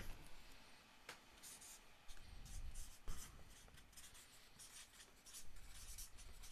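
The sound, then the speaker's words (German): Someone writes an answer to a quiz question on paper: scratchy pen strokes in quick irregular bursts with a couple of sharper taps, continuing steadily for several seconds with no one speaking. “Was hast du aufgeschrieben, mein Lieber?”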